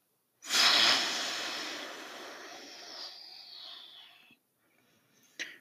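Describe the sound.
A voice imitates a wolf blowing hard: one long, forceful breathy blast of air that starts loud and slowly fades over about four seconds, followed by a brief soft puff.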